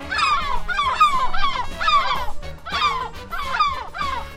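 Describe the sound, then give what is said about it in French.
A seagull calls loudly, a quick series of harsh, yelping cries in rhythmic bursts with short pauses between them. No one speaks. “Si la mouette te répond c'est dans la poche, c'est ta copine”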